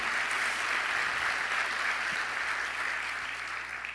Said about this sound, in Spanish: Y se merece un aplauso el Señor por eso, por enderezar nuestra vida.